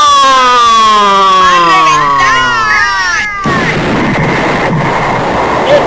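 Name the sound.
explosion sound effect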